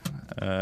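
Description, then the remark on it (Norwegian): A single sharp slap of a Kvikk Lunsj chocolate bar, a quiz prize, smacked against a tabletop in a studio, a brief dull hit, followed at once by a voice starting to speak. “Sånn høres det ut når de slår den mot bordet.”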